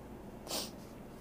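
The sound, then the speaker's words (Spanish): A single short, sharp nasal burst, like a wet snort or stifled sneeze, bringing mucus out of the nose, brief, against a faint background hum with no talking. “Ay, me salieron unos mocos.”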